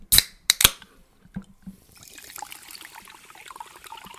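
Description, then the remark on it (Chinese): Sparkling water fizzing: a few sharp clicks and pops at the start, then a steady, bright crackle of tiny bubbles that keeps hissing softly to the end. No one speaks. “让我们听一听气泡水的声音。”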